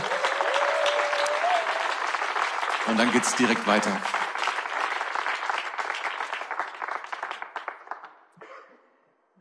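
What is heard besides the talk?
audience applause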